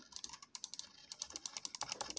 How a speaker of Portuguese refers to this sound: E, um, e tem o som do mouse também, que é assim, ó. Não sei se dá pra escutar, é assim, ó.